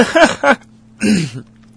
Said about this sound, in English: I was muted while I coughed, and I unmuted so you could hear my laugh, but you still heard most of my cough.